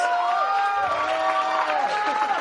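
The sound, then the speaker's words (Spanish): A crowd cheers and applauds the speaker's daughter, who is at the back: a dense steady wash of clapping with high whoops and shouted voices rising over it, loud and unbroken for the whole stretch. “Denle un aplauso a mi hija que está ahí atrás.”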